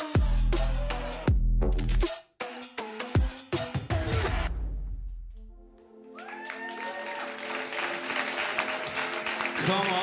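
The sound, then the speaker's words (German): A large audience at a church service breaks into loud, sustained applause with scattered cheers and whoops, following a few booming musical hits and crashes at the start; the clapping lasts several seconds. “großen Applaus geben.”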